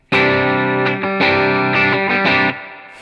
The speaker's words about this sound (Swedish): Och ni hör att det spricker lite grann, men nu ska vi börja ge oss in i den här sweet spoten. Så jag höjer gainen och ställer den på klockan, eh, typ klockan 11.